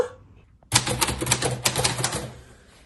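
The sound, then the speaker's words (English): A burst of rapid typing on keys starts abruptly and clatters on for about two seconds, fairly loud, with uneven quick strikes before trailing off. “Wait, who's typing that?”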